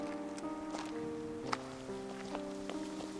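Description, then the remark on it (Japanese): Slow, crunching footsteps of two people walking on a gravel path, roughly five unhurried steps, heard over a soft, sustained musical drone. “砂利道を歩く”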